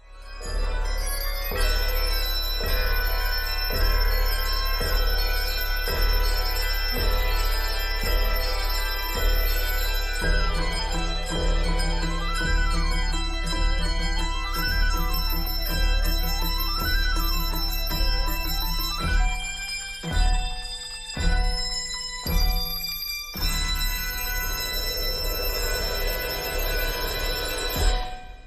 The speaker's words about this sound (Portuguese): é, um exemplo do, do Coral de Sinos, beleza? Como vocês podem escutar, de como eles são assim harmoniosos e tal, e muito lindo também.